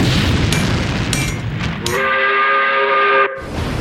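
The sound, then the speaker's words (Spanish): A steam train on Paraguay's railway rumbles along the rails with loud chuffing and clatter, then a long, steady steam whistle blows for over a second before the rumbling resumes. “Paraguay además tenía su propio ferrocarril.”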